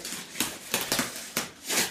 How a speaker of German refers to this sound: Gut, ich habe mir schon mal äh, ein Messer bereitlegen lassen, um das Klebeband zu schneiden.